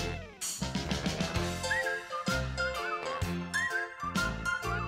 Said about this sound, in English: This is the theme to Garry Show music that you hear as you watch the credits. We're almost to the part of where I start to whistle.